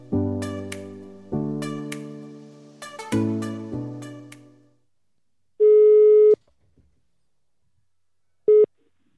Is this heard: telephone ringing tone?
yes